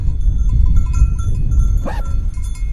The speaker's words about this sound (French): bâton en main, entouré de ses chiens, essayer de manœuvrer son troupeau.